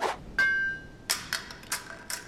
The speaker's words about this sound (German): Na sowas. Der Degen ist zerbrochen. du hast einen Knopf auf meiner Brust getroffen, einen Knopf aus Metall und der Knopf hat gewonnen.